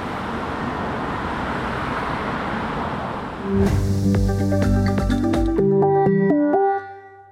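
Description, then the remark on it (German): A steady wash of slow, stop-and-go road traffic crawling through the village of Nettstel rumbles and hisses for a few seconds with no voices, then a bright tonal jingle of sustained notes cuts in and replaces it. “Und unterdessen kreucht der stockende Verkehr weiterhin jeden Morgen und Abend durch Nettstel und durch die anderen glamour Dörfer.”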